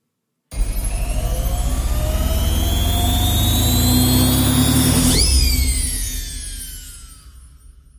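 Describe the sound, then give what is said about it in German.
A washing machine running with socks inside: a loud, steady whirring hum whose whine climbs in pitch for several seconds, then abruptly drops and winds down, fading toward the end. No voices. “Und nun ab mit den Socken in die Zauberwaschmaschine.”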